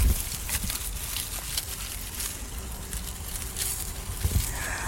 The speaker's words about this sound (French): Oh, petite chèvre Qui est ces petites chèvres blanches sont quand même, c'est pas des chèvres naines, c'est des grosses chèvres et elles mangent des feuilles mortes.